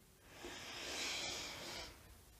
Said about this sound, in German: Wir atmen durch die Nase ganz tief neue Energie, neue frische Luft ein.